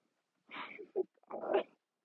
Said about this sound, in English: Why my dog is weird as fuck. But loving, so that's cool.